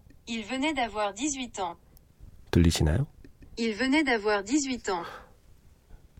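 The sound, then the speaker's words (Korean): A synthetic text-to-speech voice from a translation app reads a short French phrase aloud, then repeats it, with a brief, louder burst of a person speaking in between. “이게 프랑스어로.”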